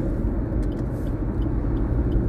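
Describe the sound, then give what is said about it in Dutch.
Steady, heavy road rumble of many trucks driving all around, a continuous low drone of engines and tires with no talking. “ik hoop dat jullie mij voldoende kunnen horen, want er rijden nogal veel vrachtwagen om mij heen.”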